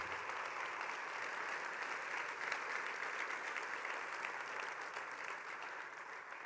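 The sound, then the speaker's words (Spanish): A crowd applauds the Lord steadily, a dense wash of clapping hands that holds an even level for several seconds before easing slightly toward the end, with no voices standing out. “Y sí, vale dar un aplauso al Señor.”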